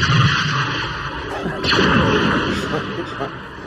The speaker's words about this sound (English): Do we have fireworks on that sound pad? I don't think we do. I'll look for some.